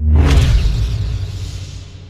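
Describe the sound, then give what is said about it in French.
A Star Wars lightsaber swings with a quick bright swoosh, then settles into its deep, steady electric hum that drones on loudly for the remaining couple of seconds, with no voices. “le son emblématique du sabre laser”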